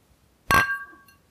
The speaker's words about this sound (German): Aber die Gläser klingen doch eigentlich besser. Die haben doch eigentlich voll den geilen Klang.